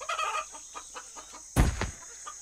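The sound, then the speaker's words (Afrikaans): Chickens cluck in a quick series of short, repeated calls, followed by a louder, sudden burst of movement or flapping, with a constant faint hiss underneath. “Terwyl sy oefen, verbeel sy haar sy vlieg hoog bo in die lug en kyk na die hoenders deur onder op die grond.”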